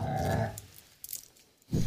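A dog growls low and rough in two bursts, a longer rumble at the start and a short one at the end, with quieter breathy noise between and no talking.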